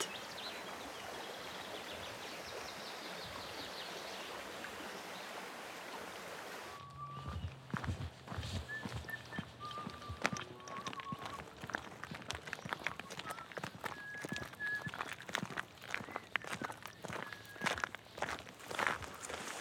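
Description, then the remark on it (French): Footsteps crunch along a country path across open plain in fine weather, in a steady walking rhythm, with birds chirping now and then. Before the steps begin, a steady rushing outdoor noise fills the first several seconds. “Je me trouve actuellement en pleine plaine, sur le chemin, la forêt, les champs, le beau temps, un ruisseau, une cascade. On marche, on regarde, on profite.”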